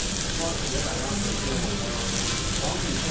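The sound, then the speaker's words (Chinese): Lobster sears in a hot pan, the first pan-searing step of a sear-then-reduce method, browning it and making its surface crisp and golden. A steady, dense sizzling hiss with fine crackles runs evenly for the whole few seconds, fairly loud and without pauses. “这边我们的龙虾呢会采用一煎二收的料理手法。首先，接下来我们就要采用一煎的，先上色上香的。”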